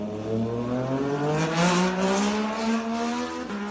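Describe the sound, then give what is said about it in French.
A Formula 1 race car engine screams loudly during a race, its high-pitched whine climbing steadily in pitch as it accelerates for a few seconds, with no voices. “Je te propose qu'on enchaîne avec euh, le meilleur moment de ton week-end, à n'en pas douter, la course. La Formule 1.”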